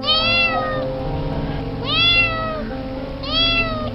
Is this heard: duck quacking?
no